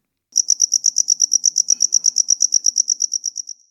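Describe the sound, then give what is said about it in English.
A cricket chirps in a fast, steady series of bright, high-pitched pulses, clear, with only faint low background noise and no voices. “Crickets are so well known for their songs, they're even named after it.”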